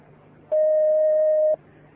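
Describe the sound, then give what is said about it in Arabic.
A single steady electronic telephone tone sounds for about one second as an incoming phone call is taken, loud and clean, standing out over a quiet background hum that returns when it cuts off. “أحسن الله إليكم يا شيخ نأخذ هذا الاتصال”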